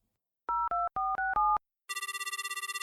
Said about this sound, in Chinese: 野狼阿旺掏出自己的手机，拨通了披萨店的电话。